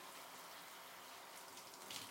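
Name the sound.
shower water running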